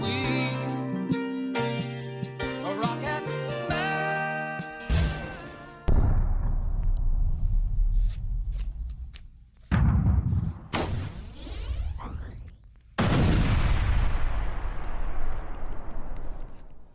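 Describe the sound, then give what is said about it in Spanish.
After a short tonal musical passage, a series of loud, heavy rocket explosions erupts, four or so booming blasts, each rolling into a long, rumbling decay, with no talking. “Bueno, seguimos con nuestra explosiva, eh, literalmente eh, explosiva historia sonora, porque les vamos a platicar, pues, de esto, ¡pum!, de explosiones.”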